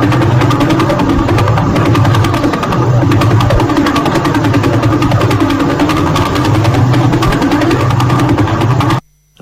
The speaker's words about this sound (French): ça, c'est un pulsar dans la, constellation de Vela qui fait, euh, donc 12 tours par seconde. Donc ça mhm. commence à être assez monstrueux.